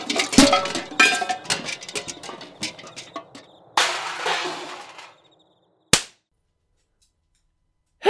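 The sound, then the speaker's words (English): Metal pots and pans clatter and jingle in a busy, irregular jumble for several seconds, then go quiet, followed by a sharp smack and another brief clank at the end, late at night in a barren wasteland. “the only sounds to be heard in the wastes this late was the slow chirp of the crickles, the dusty cough of a wind as it worked its way over the barren landscape, and the jingling of pans”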